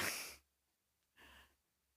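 A person yawns close by: a long breathy exhale, a short pause, then a second softer breathy gust. Quiet, with no talking.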